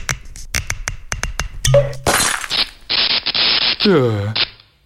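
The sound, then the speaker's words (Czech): A few light taps lead into a sharp pop as a bottle of children's champagne is opened, followed by a burst of shattering, crackling glass noise as a light bulb shatters, and a brief descending whine before it fades out. “No, paráda, tak to buchni.”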